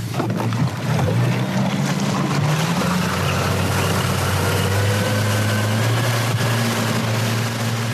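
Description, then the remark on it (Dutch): A motorboat (RIB) engine drones loudly and steadily, its pitch rising as it powers up and pulls away, with wind and water noise rushing underneath. “Ja, zullen we even, even gas geven met, met de rip?”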